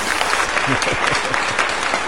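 An audience applauds, a dense, steady wash of many hands clapping at once, loud and continuous throughout, with faint voices mixed in beneath the clapping.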